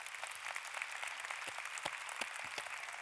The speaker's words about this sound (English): And ladies, why don't we applaud these guys?